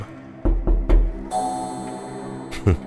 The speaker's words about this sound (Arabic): ودقات الساعة تعلو أكثر وأكثر